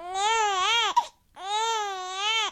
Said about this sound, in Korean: 얘가 얘가 애우는데 뭐해? 아우 시끄러 죽겠네.